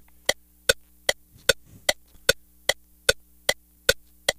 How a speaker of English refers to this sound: turn signal.